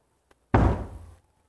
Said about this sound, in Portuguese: Uma porta se abriu